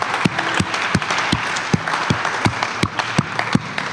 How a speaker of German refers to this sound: Hey, lass uns einen fetten Applaus geben für alle, die hier oder online die Entscheidung getroffen haben.